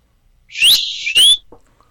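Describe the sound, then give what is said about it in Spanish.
A shrill whistle sounds alone in the distance in a city: a rising note glides into a held tone, then a second upward swoop ends it, loud and sharp over near silence, with a faint chirp trailing after. “a lo lejos se escucha el rechinar de unas balatas corrientes de trolebús, las sirenas, los silbidos.”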